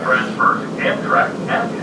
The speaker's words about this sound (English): I'm the only person in the Newark Liberty Airport air train.